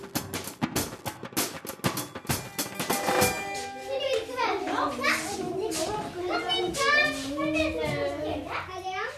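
Children play eagerly and noisily, with sharp claps or knocks in the first few seconds giving way to overlapping high-pitched shouts, squeals and chatter that stay lively throughout.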